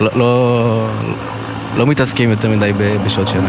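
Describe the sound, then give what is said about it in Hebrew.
A helicopter drones overhead, its steady low humming tone running the whole time beneath a man speaking over it. “מה שאתם שומעים ברקע זה מסוק שעובר אותנו ככה בזה הרגע”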